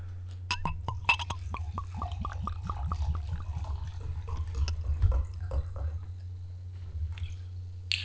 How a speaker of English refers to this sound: Crack this bad boy open. Gonna pour it.